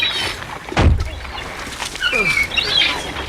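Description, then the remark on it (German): Seagulls call repeatedly in the open air at a bumpy parking lot of a resort by a nature reserve on a foggy day, their squawks rising and falling over a steady outdoor hiss, with a short whooshing thump early on. “kaum hatte er die Fahrertür geöffnet, wussten die vier, warum man dieses Ressort hier Möwenhimmel genannt hatte.”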